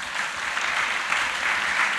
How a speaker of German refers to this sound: Einmal Applaus